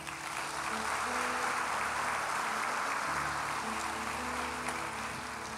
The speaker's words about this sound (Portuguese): Aplauda o Senhor.